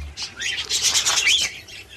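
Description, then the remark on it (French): Busy burst of squawks and chatter from budgerigars and cockatiels, Australian parakeet species, in an aviary, layered over rapid fluttering wingbeats. The dense rustling flurry holds steady for about two seconds with no talking. “à part les perruches ondulées également, des perruches calopsites qui sont aussi des espèces australiennes”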